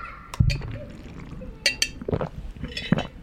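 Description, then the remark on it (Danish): Someone drinks squash from a glass during a drinking break: a few light clinks of glass, then soft sips and swallows in short bursts against a quiet background. “Nu tager jeg lige en drikkepause.”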